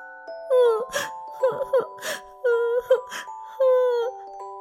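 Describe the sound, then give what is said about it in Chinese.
A voice acts out a young piglet crying near a tree stump: about five wavering, sobbing wails, each broken by sharp sniffling gasps, fairly loud and with no talking. “传来了什么人的哭声？”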